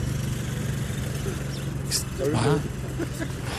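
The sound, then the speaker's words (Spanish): A police quad bike engine rumbles steadily at a low pitch throughout, moderately loud, as it passes by near Chapultepec Castle, while people talk briefly over it. “Estamos llegando al castillo de Chapultepec Ahí va una, ah, mira, policía en cuatrimoto.”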